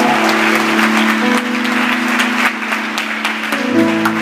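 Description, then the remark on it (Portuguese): An audience applauding the Lord together during an evening worship service, a dense, steady wash of clapping from many hands that fills the room, with sustained organ-like tones held underneath throughout. “Quantas pessoas, só aqueles que creem nessa palavra, aplaudam ao Senhor e digam glória a Deus!”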